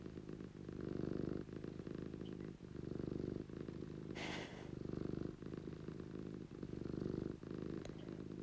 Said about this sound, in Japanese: すごいねね本日も DJ チーがゴロゴロ言わしております